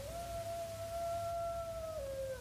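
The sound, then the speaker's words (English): A lone coyote howls in the hills, holding a steady, drawn-out pitch for about two seconds before sliding downward, faint over a low background rumble, with no one talking. “Did you hear them? The coyotes in the hills?”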